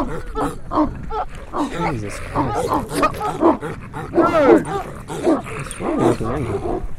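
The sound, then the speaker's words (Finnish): A pack of dogs snarls and barks loudly in the dark as stones are thrown at them, a dense, overlapping flurry of growls, yelps and sharp barks that keeps up without pause for the whole stretch. “Pimeydestä sinkoilee kiviä koiria kohti, ja teltastaan äkkilähdön tehnyt ystäväni juoksee paikalle sukkasitteen.”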